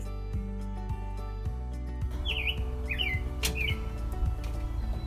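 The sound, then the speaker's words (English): A few quick, high bird chirps ring out in short swooping bursts over a steady low hum and background bustle, starting about halfway through. “I hear you, okay, bird?”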